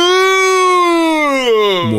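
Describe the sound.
A young child's voice imitates a cow's moo when asked: one long, drawn-out tone that slowly falls in pitch and dips at the end, fairly loud.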